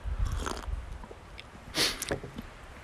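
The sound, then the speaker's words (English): A quiet slurping sip of warm tea, one short airy draw of liquid surrounded by soft mouth and swallowing noises, with no talking. “Let me get a little sip of my warm tea here.”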